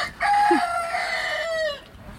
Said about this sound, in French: Car des poules et des coqs vivaient en liberté au milieu des immeubles. Aujourd'hui, ils ont leur maison pour se percher ou se cacher. le micro rouge a l'air de les impressionner, peut-être parce que ça ressemble à leur crête.